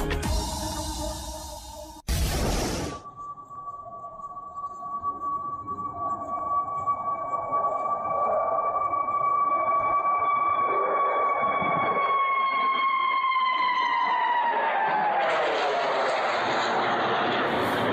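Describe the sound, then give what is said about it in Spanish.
Military jets fly overhead in Mexico: a loud, building roar topped by a steady high whine that bends downward in pitch as they pass, lasting around fifteen seconds. “Bueno, son los jets militares que no son muy frecuentes en México,”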